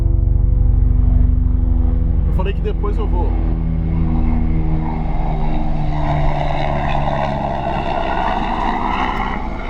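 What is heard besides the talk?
helicopter passing overhead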